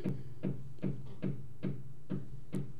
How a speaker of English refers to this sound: Why is this person banging? Hello. Sorry, guys. Somebody's tapping something on the wall, and I don't know if they're tapping it because I'm talking or if I need to go downstairs and slap the, the owner of the salon.